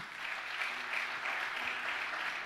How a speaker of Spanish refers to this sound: Del otro aplauso fuerte al Señor.